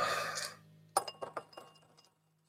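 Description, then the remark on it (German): Dice rattle briefly in a cup, then clatter onto a hard table with a sharp first hit and several quick, fading bounces before settling on a three and a two. Clear, with no talking. “Das ist dieser Würfel.”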